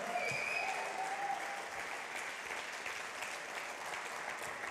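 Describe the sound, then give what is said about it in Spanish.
A church audience applauds the Lord during a Spanish-language sermon, steady, dense clapping that stays fairly even for several seconds, with a few brief high whistles or cheers rising over the clapping early on. “¿Cuántos aplauden al Señor?”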